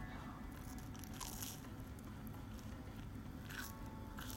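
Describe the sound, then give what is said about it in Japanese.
Crunchy bites into Danish pastry bread, with crackly bursts around one and a half and three and a half seconds over a steady low rustle of chewing. No one speaks. “飯テロならぬパンテロ”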